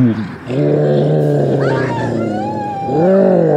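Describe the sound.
A person voices a loud, sustained gorilla-like roar, a throaty growling bellow held for several seconds and rising again at the end, delivered alone without words.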